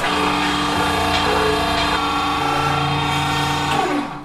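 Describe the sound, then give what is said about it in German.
A steady mechanical whir and hum of a paper press pressing freshly made paper sheets between felt sheets, pressing hard, with a dense motorized drone, shifting tones and a faint rising whine, fading out at the end. No one speaks. “Da musst du dir jetzt vorstellen, dass diese Presse, die drückt jetzt so fest, als würde da ein riesiger Lastwagen drüber fahren.”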